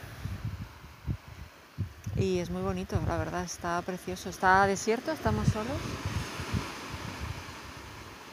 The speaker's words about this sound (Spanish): Y ahora mismo estamos parados, ojalá lo pudieras ver, pero es que está súper chulo porque es entre acantilados, se ven las paredes de los acantilados, es como una garganta donde entra el mar y se escucha así.